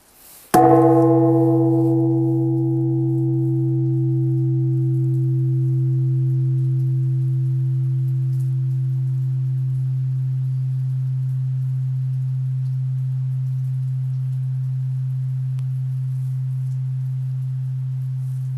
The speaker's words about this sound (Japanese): 今年も当山では住職の判断のもと除夜の鐘の鐘つきは行わないのですけどもこの1年間聞いていただいた皆様の感謝の気持ちということで今回鐘をちょっと点検がてらつかせていただきたいと思います。